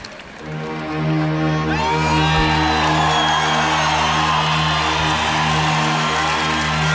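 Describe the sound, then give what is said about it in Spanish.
A live song recording opens with a loud crowd cheering and whistling over a steady, sustained musical drone that swells in after a quiet start. “Sí, sí, le pusieron música y, y suena así como escucharéis ahora.”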